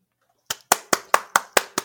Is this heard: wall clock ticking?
no